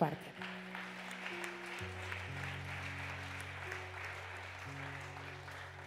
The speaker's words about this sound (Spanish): Denle un aplauso